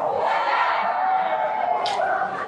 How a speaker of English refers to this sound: how often do you hear students cheering when they get to do more work? That's awesome. These guys are having, having a whale of a time.